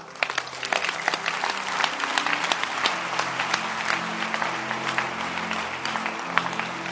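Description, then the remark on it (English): An audience bursts into loud, sustained applause during a sermon, many hands clapping rapidly and densely for several seconds, with faint crowd murmur beneath. “I want to hear a loud hand clap.”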